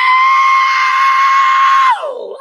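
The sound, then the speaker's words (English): A man imitates the shrill, screeching whistle of an F-35 jet flying past just before it crashed: one loud, steady high-pitched note held for nearly two seconds, then sliding down in pitch as it fades out. No other sounds accompany it. “Uh, in the bathroom taking a shave, and I heard a, a screeching, solid between a screech and a whistle.”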